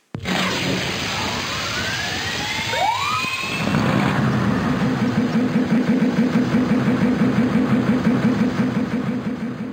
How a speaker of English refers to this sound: The engines, yeah, just them revving their engines, uh, all that stuff.